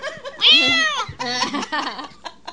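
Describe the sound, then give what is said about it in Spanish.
A person does a loud, drawn-out vocal imitation of a cat's meow, rising and wavering, followed by a burst of laughter and excited voices. “Yo solo puedo hacer como los gatos.”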